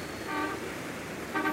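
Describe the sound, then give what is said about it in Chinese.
Two short, bright car horn honks on a busy town street, a brief pause between them, ringing out over a steady low rumble of street traffic. “自行车的车铃发出响声，汽车的喇叭震天响。”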